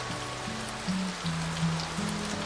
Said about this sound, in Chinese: 下雨了，你还好吗？